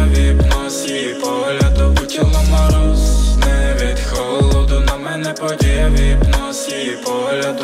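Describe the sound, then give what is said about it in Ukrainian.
A loud pop track plays steadily, with deep thumping bass hits landing in a regular rhythm beneath bright, layered synths and instruments; no singing or talking is heard. “маємо бажання вімкнути ще один трек …”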